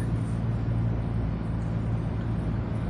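A steady, low car engine drone fills the cabin from inside a car being driven, a constant rumble with faint road noise and no distinct events, holding even throughout.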